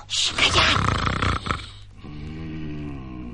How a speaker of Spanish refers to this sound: ¡Un ronquido! Pues claro que es un ronquido. Es el ogro que duerme.